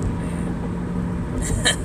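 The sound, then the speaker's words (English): A loud car's engine rumbles loudly and steadily right next to the listener on the left, a dense low roar filling the whole stretch, with a brief brighter burst of noise near the end. “I like there's a loud ass fucking car right next to me. It's right next to me on my left.”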